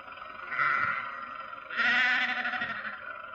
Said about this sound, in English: Confound that man with his sheep. Does he have to take up the entire road?